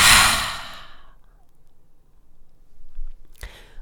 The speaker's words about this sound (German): Und atme durch den Mund aus und dabei lass deine Schultern wieder nach unten sinken. Wir atmen nochmal gemeinsam ein und aus.